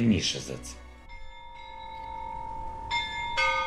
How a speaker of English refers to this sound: National pride rang out in Kiev. The bells of St. Michael's Cathedral chimed at midnight as Ukrainians prayed for survivors as well as the fallen and are reminded that after a year of war, Ukraine still stands.